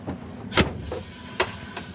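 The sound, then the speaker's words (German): Short pneumatic hisses from a vehicle's pneumatic folding step system retracting: one sharp, loud burst of air, then a fainter puff and another brief hiss over a low background hum. “Man hört immer dieses Tsch.”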